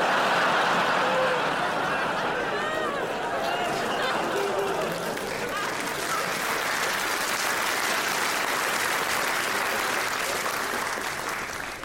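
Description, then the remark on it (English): Sustained audience applause for a story at a Phil Wang stand-up comedy show on Netflix, a dense wash of clapping that stays loud and steady throughout, mixed with scattered laughter and crowd chatter. “just think about the story you just applauded.”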